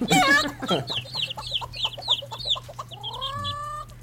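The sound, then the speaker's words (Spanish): Several chickens cluck in quick, repeated bursts, fairly loud, with a longer drawn-out rooster-like call near the end over a low steady hum. “ya se siente como en la granja.”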